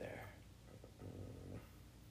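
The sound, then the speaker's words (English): A person imitates a chihuahua's growl, making a low, raspy, rumbling snarl that holds steady for about two seconds at moderate volume. “Bitch, I don't fucking growling like a chihuahua.”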